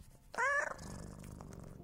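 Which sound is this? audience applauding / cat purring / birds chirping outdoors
cat purring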